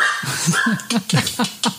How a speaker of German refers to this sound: Hund ist anderer Meinung.